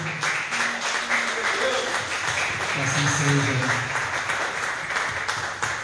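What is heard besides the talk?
audience applauding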